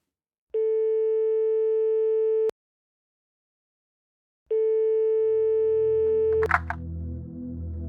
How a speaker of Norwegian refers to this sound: En politispane ringer en av informantene sine.